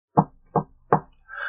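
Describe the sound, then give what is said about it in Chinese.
Three loud, evenly spaced knocks on a door, each a solid thud, followed by a brief, higher-pitched raspy sound. No voices. “突然，门外传来规律的敲门声。”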